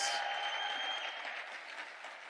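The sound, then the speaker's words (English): A large audience claps continuously, a dense, steady wash of applause, with a faint high-pitched tone ringing through it for the first second. “Now you're really going to clap your hands.”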